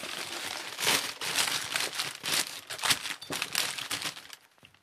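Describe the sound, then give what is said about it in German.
A large ball of crumpled newspaper wrapped around a vase from a flea market being unwrapped: a steady run of crisp, irregular crinkling and rustling bursts, fairly loud and without voices, tapering off into quiet at the end. “Dann solltest du es auspacken, bevor du es mir zeigst.”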